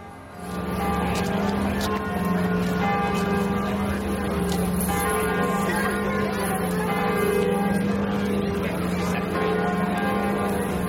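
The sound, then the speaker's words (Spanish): The bells of Notre-Dame de Paris ring a full peal at noon, loudly and continuously, deep overlapping tolls blending into a dense, sustained shimmer over a faint outdoor city background with tourist noise. “Son las 12 del mediodía y así suenan las campanas de Notre Dame de París.”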